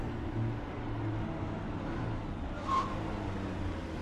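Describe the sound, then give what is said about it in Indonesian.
Steady, droning rumble of a car cruising along the empty Cipularang toll road toward Bandung around 11 at night, heard from inside the cabin, with one brief soft whoosh partway through and no other traffic standing out. “Masuk tol Cipularang, gue pikir bakal macet. Tapi ternyata, ah, ah, ah, lobong aja nih jalanan.”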